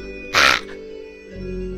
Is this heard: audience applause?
no